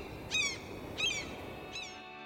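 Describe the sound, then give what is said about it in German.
Three harsh, nasal squawks of a seagull spaced about evenly apart, moderately loud against a steady background hum, the last call slightly fainter. “das dümmliche Plöken einer Möwe mischt sich zuerst nur dezent in den Refrain hinein.”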